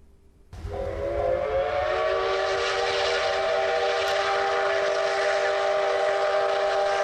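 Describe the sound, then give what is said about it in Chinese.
A train slowing down as it nears Wei County (围县), its brakes letting out a loud, sustained, steady high-pitched squeal over hissing rail noise that begins abruptly and holds for several seconds, with no talking. “想着想着，火车慢了下来。”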